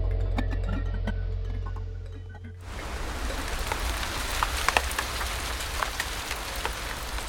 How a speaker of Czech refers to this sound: Je monzun a venku leje. Sedím na posteli pod moskytěrou v dřevěném domku na ostrově Bohol na Filipínách.